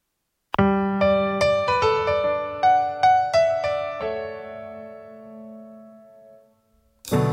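A slow, gentle piano passage with sustained chords and single notes ringing out and decaying, like a pop ballad intro; no voice is heard, and a brief burst follows a pause at the end.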